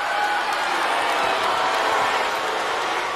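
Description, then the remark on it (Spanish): A large crowd booing loudly at the 2009 VMAs during an award acceptance, a dense, continuous roar of many voices that holds steady for the whole few seconds without any clear individual speech. “Bueno, y se consumaron los abucheos.”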